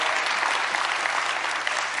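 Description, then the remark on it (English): Sustained applause from a large group for the speaker's wife on Father's Day, a dense, even patter of many hands clapping steadily at a fairly loud level, with no voices standing out. “Now, today's Father's Day, and I, I couldn't be a good father without my lovely wife, and I want to applaud her.”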